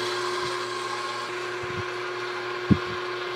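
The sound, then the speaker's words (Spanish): A blender whirs steadily, mixing dough of flour, salt, oil and boiling water, its motor droning at a constant pitch while a few soft low knocks and one sharper thump break through near the end. “Vamos a hacerlo en una mezcladora, pero también podemos hacerlo a mano si queremos con la ayuda de un tenedor.”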